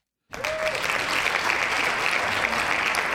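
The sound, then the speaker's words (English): A steady burst of applause from many hands, loud and sustained, starting abruptly and holding at an even level with dense overlapping claps throughout. “Hand claps.”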